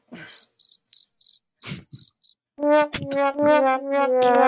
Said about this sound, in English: can we get the crickets now, please?